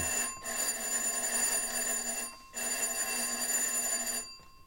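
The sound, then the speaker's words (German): A doorbell at the front door of a house rings twice in long, steady bursts of about two seconds each, separated by a brief pause. The bright, buzzing ring is loud, with no voices. “Das ist an der Haustür, Sir. Ich habe es gehört, James.”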